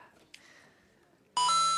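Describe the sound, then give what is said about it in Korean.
A coin is inserted into a karaoke machine to start the song's accompaniment: one brief, faint metallic clink, then after a pause a loud, steady electronic beep tone with bright harmonics that holds to the end. “동전을 넣으면 반주가 시작됩니다.”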